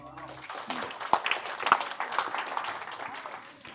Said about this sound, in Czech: Děkujeme chvále. Pojďme jim zatleskat.